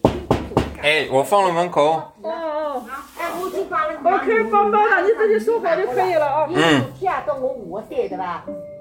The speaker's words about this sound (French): Donc je me réveille le matin, soit par moi-même, soit parce que des volontaires passent avec des haut-parleurs et tambourines aux portes euh, pour aller soit faire des tests PCR, soit nous distribuer des tests antigènes.